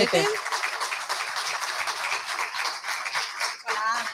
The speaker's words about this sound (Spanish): vamos a dar un aplauso